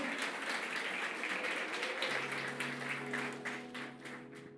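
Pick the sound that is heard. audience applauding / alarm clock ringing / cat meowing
audience applauding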